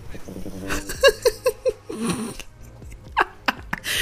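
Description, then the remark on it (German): A sleeping dog snores, giving a quick run of four short, snorting puffs followed by softer breathy snuffles and a few faint sniffs. “Aber es bewegt sich nicht, wenn die schnarcht, nur wenn ich spreche.”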